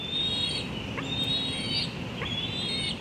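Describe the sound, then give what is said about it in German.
An eagle chick screeches in thin, high, drawn-out cries, three in quick succession, from a nest high in a tulip tree in northeast Washington DC in late May, over a steady rushing outdoor background. “Es ist Ende Mai und im Adlerhorst hoch oben in einem Tulpenbaum im Nordosten von Washington DC zetert ein Küken.”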